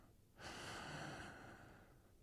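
A single deep, airy breath, lasting about a second and then trailing off into quiet, with no one speaking; part of a slow breathing exercise: breathe in, hold, and breathe out.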